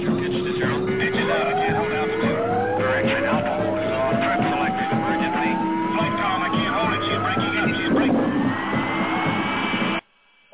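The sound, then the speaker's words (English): Loud, continuous roar of an aircraft's number three tire blowing out and skidding on a runway during landing, with a steady rising whine climbing over about ten seconds before cutting off abruptly into silence; faint voices sit beneath it. “I've got a blowout. Number three.”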